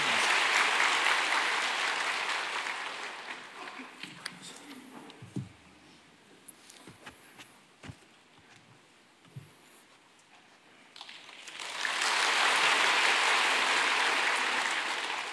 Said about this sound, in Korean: 형제님 나올 때 박수로 환영하겠습니다.